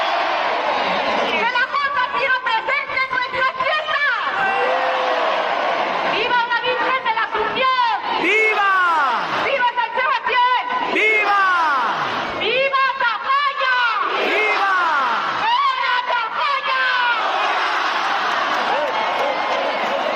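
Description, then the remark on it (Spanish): A dense, excited crowd roars and chatters continuously for about twenty seconds at the rocket launch opening the fiestas in Tafalla, with rising and falling waves of shouting and cheering throughout, loud and sustained with no clear pauses. “Bueno, pues vamos a contagiarnos de esa alegría y de esa emoción escuchando ese cohete de Tafalla.”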